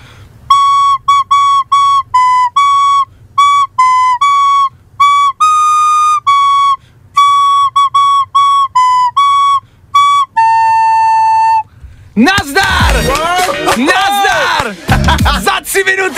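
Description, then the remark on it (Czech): A simple melody is played on a whistle instrument by someone who just learned it in minutes, clear: short, bright notes in a steady rhythm ending on a long held tone, then a sudden burst of loud, excited shouting. “Znělka! …! Je to tam!”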